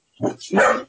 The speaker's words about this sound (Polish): przepraszam, to tylko mój pies